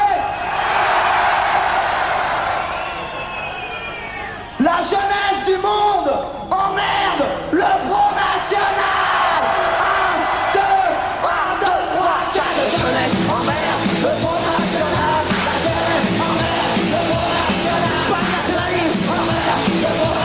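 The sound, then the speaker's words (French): A large crowd shouts and yells loudly and continuously for about twenty seconds, voices overlapping into a dense roar with bursts of individual cries rising above it. “Je veux vous voir gueuler comme ce soir, ok”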